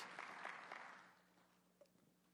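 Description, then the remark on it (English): A short burst of audience applause for a person on stage, fairly faint, a dense patter of claps that fades away after about a second, leaving quiet. “And that, give Harrison a round of applause for not being struck on stage.”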